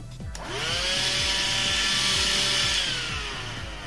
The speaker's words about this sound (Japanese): ちょっと気軽にちょいちょいで掃除する程度ならいいんですよただ音がうるさいんですよ今からちょっと動かします、うるさいですよ